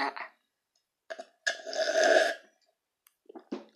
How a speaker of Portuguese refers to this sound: É. tomou um golinho aqui.